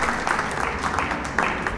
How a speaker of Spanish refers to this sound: que hoy en este sexto concierto no ha sido la excepción, ha llenado el teatro y … ha puesto al público de pie y el aplauso,